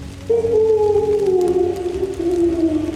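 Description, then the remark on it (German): A voice imitates an owl with a long, drawn-out hooting cry that slowly slides downward in pitch, fairly loud, over a low background rumble. “macht einen leidlichen Eulenschrei”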